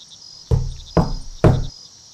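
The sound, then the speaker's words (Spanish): Three firm knocks on the door of the Castillo de las Suertes at night, evenly spaced about half a second apart, each with a solid low thud that rings out briefly, over a faint steady insect chirring in the background. “Llamé a la puerta tres veces.”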